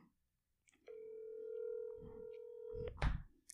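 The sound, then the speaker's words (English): A phone's ringing tone as a call is placed: one steady electronic note held for about two seconds over faint background noise, cut off by a sharp click and a short rustling burst. “All right, I'm gonna call him.”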